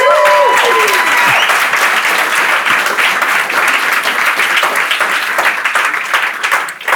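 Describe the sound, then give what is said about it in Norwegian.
An audience bursts into loud, sustained applause, a dense steady roar of clapping lasting several seconds, with a brief sliding whoop at the start before the clapping tapers slightly at the end. “Gi dem en varm applaus.”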